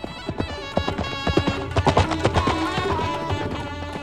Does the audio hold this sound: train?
no